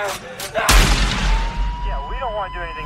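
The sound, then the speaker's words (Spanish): A sharp, loud gunshot bursts out, trailed by a deep booming rumble that slowly fades. A couple of softer cracks come just before it, and wavering tones linger afterward. “Por ejemplo, un niño en Florida decía tener los recuerdos de su propio abuelo, el cual fue policía y murió de un disparo en el corazón durante un asalto.”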